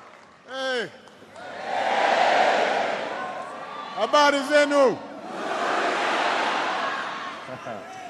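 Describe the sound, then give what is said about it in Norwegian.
A packed crowd at Kenya's largest stadium, in northeastern Nairobi, roars in broad, sustained waves, with sharp whistles and shouts cutting through the din. “Den fullsette stadionen i det nordøstlige Nairobi bruser.”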